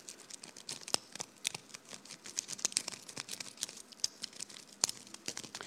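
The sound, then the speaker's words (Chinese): The shell of a boiled egg is peeled, a foley sound made for a Feng Xiaogang film, in a quiet, steady crackle: small brittle cracks and crinkles in an irregular patter, with a few sharper snaps standing out, and no voices. “生熟鸡蛋的时候，它有那个，因为芯儿已经煮熟了，煮熟了以后呢，它在剥那皮儿的时候，它芯儿里边是有厚度的。”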